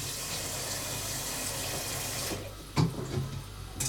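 Tap water runs steadily into a cooking pot, filled over halfway for boiling pasta, with a full, hissing rush for a couple of seconds, then cuts off, followed by a few metallic clunks of the pot being handled.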